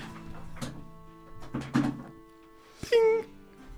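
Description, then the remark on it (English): An office chair's height is raised: a few soft mechanical clunks and knocks, then a short, sharp creaking squeal near the end over faint room hum. “Where's my chair going down? Oh, I'm gonna erect my chair.”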